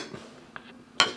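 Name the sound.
glasses clinking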